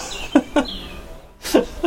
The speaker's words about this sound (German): Hier schreit so ein komischer Vogel im Hintergrund. Das hört sich ganz gespenstisch an. ja, das ist ein Papagei, der wohnt hier in der Nähe.